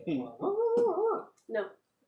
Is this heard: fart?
no